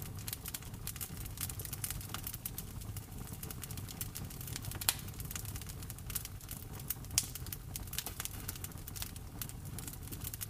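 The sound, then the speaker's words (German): Steady crackling of a wood fire burning in a fireplace, with dense irregular pops and snaps over a low warm rumble, moderately quiet, no voices. “Kannst du die Geräusche des Feuers wahrnehmen?”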